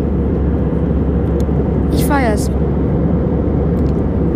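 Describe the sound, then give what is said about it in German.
Steady, loud airplane cabin drone in flight at about 10,000 metres above the clouds near Kassel or Paderborn, Germany, about half an hour before landing, a dense low rumble and hiss filling the whole clip, with a brief voice speaking over it partway through. “Haben noch ungefähr eine halbe Stunde zum Fliegen.”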